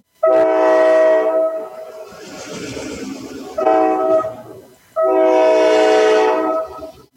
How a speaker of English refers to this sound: well, here's a train.